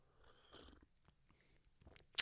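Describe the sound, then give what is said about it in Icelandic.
Soft mouth noises and faint slurping from a cup of hot tea heated in a microwave, ending in one short, sharper sip near the end. No one speaks. In Sapporo near the start of March, still cold with much snow. “ég er hérna með myndu te og ég ætla að fá mér sopa”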